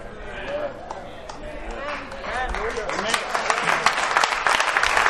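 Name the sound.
audience clapping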